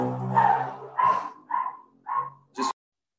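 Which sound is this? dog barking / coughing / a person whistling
dog barking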